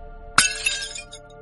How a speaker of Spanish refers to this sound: A unos dos palmos de distancia se rompió una botella.